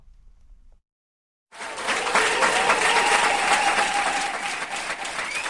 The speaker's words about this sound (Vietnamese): Khán đài 1.000 chỗ của Cung Quy hoạch Hội trợ và Triển lãm tỉnh Quảng Ninh không còn một chỗ trống và những tràng vỗ tay không dứt dành cho các thí sinh.